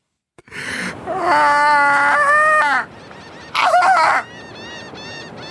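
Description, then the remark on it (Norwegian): Loud seagulls screech in harsh overlapping bursts, a long wailing call followed by a pause and a shorter second outburst, with fainter cries trailing off afterward. No one speaks. “Det er noe måkekontentum baki der.”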